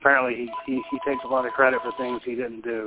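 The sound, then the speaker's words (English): A mobile phone rings with a steady, fairly quiet electronic tone lasting about two seconds, playing underneath a man who keeps talking over it. “that's my phone out. again.”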